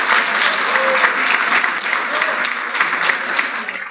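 A round of applause from many people, dense and steady clapping that fills the whole clip at a fairly loud level, with no speech on top.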